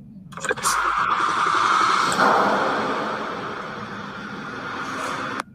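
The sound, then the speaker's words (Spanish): A car engine cranks and catches, then idles with a steady, rumbling pulse for several seconds, sounding thin as it plays back from a recording made on a mobile phone, before cutting off. “Quizás si les pongo el sonido de cuando le arranque.”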